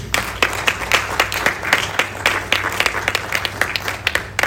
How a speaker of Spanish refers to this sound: Dar un fuerte aplauso a Jesús.